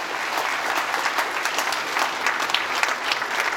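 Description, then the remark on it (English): People applaud steadily to thank a team for their work, a dense wash of clapping hands that holds at an even, fairly loud level for a few seconds without any voices rising above it. “And so, can we just honor and thank them for all the work that they put in?”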